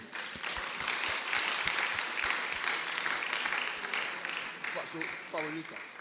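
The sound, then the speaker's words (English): An audience applauds a man who has just asked a question, steadily for about six seconds, many overlapping claps forming a dense, even roar, with a brief voice rising over it near the end. “Clap for him.”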